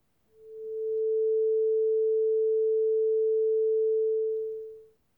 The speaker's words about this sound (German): Tatsächlich würde sich ein reines A, also eine Schallwelle mit einer Frequenz von genau 440 Hertz, für das menschliche Ohr eher langweilig oder bei längerer Dauer sogar störend anhören, nämlich so.